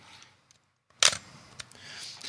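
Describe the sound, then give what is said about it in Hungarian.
A single crisp mechanical snap of a film camera's shutter being fired a second time, breaking a near-silent pause, followed by faint handling clicks and low rustle. “nem jó helyre tartottam, úgyhogy most még egyszer elsütöm.”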